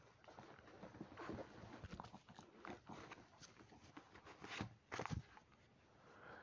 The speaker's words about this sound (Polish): Piesek mi przeszkadza.